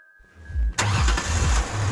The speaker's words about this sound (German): Lola startet den Motor.